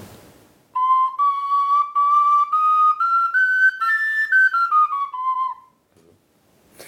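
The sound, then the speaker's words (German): A small four-hole flute with a range of seven notes plays a short, breathy melody alone, its clear high notes stepping upward and then gliding back down over about five seconds before stopping. “genau, und die hat vier Löcher und letztendlich einen Tonumfang von sieben Tönen.”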